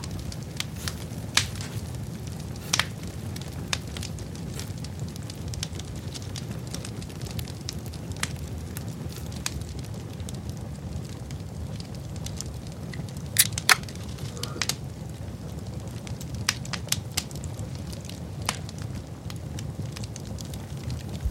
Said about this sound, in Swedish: Så. Det blir lite julstämning. Alltså, det här är ju som TV-brasan fast i radio.